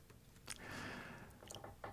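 Wet chewing of spicy stir-fried octopus (nakji-bokkeum), a steady mash of mouth sounds on something soft and squishy with a few sharper smacks and slurps near the end, no talking.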